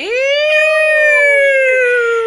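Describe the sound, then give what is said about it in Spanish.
A siren wails outside in one long, steady tone that sweeps upward at the start and then slowly sinks in pitch, fairly loud and clear with no talking over it. “Alarma, digo, este, sirena.”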